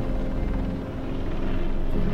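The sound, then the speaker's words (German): A helicopter carrying two special-forces police officers with assault rifles, its side doors open, drones steadily and loudly with engine and rotors, a dense low rumble that holds constant throughout with no voices over it. “Hinten im Hubschrauber sitzen zwei Sondereinsatzkommandobeamte mit Sturmgewehren im Anschlag die Seitentüren des Helikopters dann auf und sie zielen nach draußen.”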